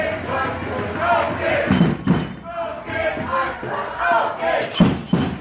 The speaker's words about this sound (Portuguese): Falando em termos de torcida, assim, do barulho que eles fazem, isso me surpreendeu muito, assim.